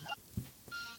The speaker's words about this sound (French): Oui. Il y a une jolie petite musique derrière toi. C'est un c'est mon téléphone fixe qui sonne. Ah, je croyais que c'était un camion à glace.